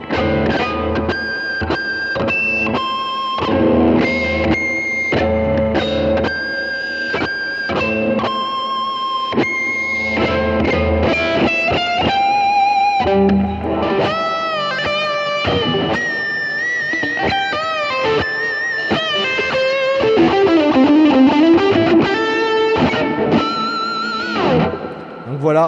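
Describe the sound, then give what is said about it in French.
Distorted electric guitar playing a run of squealing artificial harmonics, bright high-pitched overtones ringing over each note, with bends and wavering vibrato sustained throughout at a steady, loud level. “Comment faire de belles HARMONIQUES ARTIFICIELLES ?”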